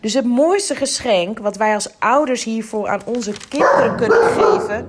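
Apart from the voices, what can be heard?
dog barking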